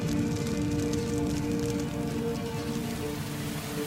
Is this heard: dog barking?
no